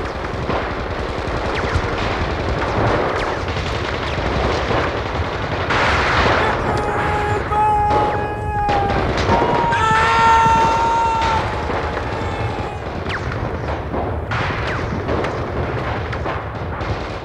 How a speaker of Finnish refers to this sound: Rykmentti hyökkäsi bunkkerilinjaa vastaan ja kauempaa oikealta kuului naapurirykmenttien hyökkäyksen melu. Kesäisen aamupäivän ilmassa vavahteli valtavan melskeen kaiku. Tuhannet piiput hehkuivat kuumuutta, tuhannet kädet latasivat ja ampuivat.